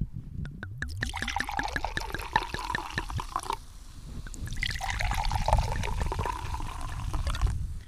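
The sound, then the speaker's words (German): Apple wine is poured from a freshly opened bottle for tasting, in two bursts: first with quick glugging that rises in pitch, then a brief pause and a second, steadier splashing pour. No one speaks. “ich habe auch zwei Flaschen mitgebracht. Eine dachte ich, mache mal auf.”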